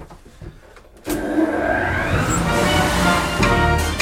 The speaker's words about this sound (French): Et en fait donc l'appareil est sous pression d'air, donc là je vais envoyer l'air dans l'appareil.